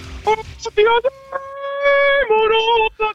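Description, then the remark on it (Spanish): A voice imitates a woman singing in operatic tenor style at a church mass, holding long, steady vibrato-free notes with a few short breaks, loud, sung alone without other sounds. “Yo no, yo no escuché una, una voz tenor así desde que acabé de ser monaguillo.”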